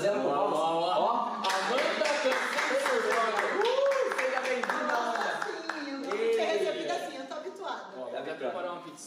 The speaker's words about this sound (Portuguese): vamos chamar a nossa convidada especial com palmas